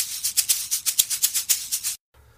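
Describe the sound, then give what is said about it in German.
A short jingle of bright, shimmering pulses, about a dozen quick evenly spaced beats over two seconds, fairly loud, then it cuts off abruptly into near silence. No one speaks. “Das trennt jetzt nämlich die, ähm, ja, die verschiedenen Teile einer Episode voneinander ab und äh, gibt dir und deinem Gehirn das Signal, wieder wach zu werden, nachdem ich dich sieben Minuten lang äh, monologisiert und eingeschläfert habe.”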